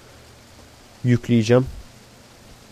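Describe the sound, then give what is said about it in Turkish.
A steady, even hiss of heavy rain falling outside in Seattle runs through the whole stretch, with a person speaking a short phrase partway through. “Yağmur daha da alevlendi.”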